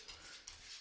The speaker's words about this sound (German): Also wenn jetzt jemand hier was kratze höre, das ist mein Hund